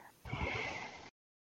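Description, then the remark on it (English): A short, breathy gulping sound of someone drinking a potion of healing from a bottle, lasting under a second with a hollow, airy tone, heard alone. “That we sound you can hear is me uh, drinking a potion of healing.”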